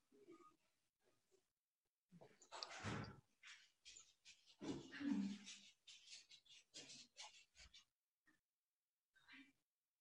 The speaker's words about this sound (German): es ist so süß, weil meine Hunde sich immer total freuen, weil Postbote bedeutet immer Leckerlis. Dann sind sie so, oh mein Gott, es hat geklingelt, es könnte der Postbote sein.